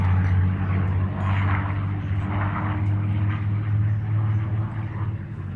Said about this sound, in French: Le tourisme de masse n'est pas créé ni porté par les ULM ou les petits avions euh, monomoteurs, qui font par contre un bruit euh, désagréable dont se plaignent à raison les riverains des aérodromes.